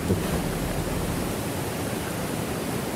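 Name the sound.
rushing river water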